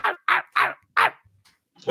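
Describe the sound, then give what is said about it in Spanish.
A large dog barks four times in a quick, steady rhythm, loud, then lets out another bark after a short pause. No one speaks. “hay un perrito grande”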